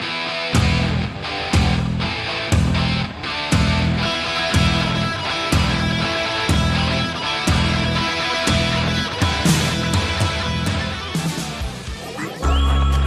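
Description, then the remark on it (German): A loud rock song plays from a recording, with a steady pounding kick drum, driving bass and dense guitars and cymbals; the music cuts off abruptly near the end. No one speaks. “der Song hat wirklich, der ist ein toller Song, aber hat einen großen Nachteil.”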